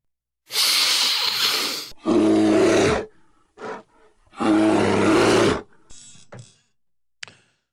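A bear roars twice in loud, raspy bursts, each preceded by a harsh breathy rush, followed by a few shorter grunts and huffs trailing off.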